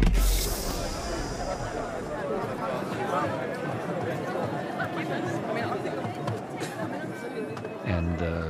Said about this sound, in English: You open up the hatch, and you are surrounded by all noisy, uh, undirected, multicolored um, people.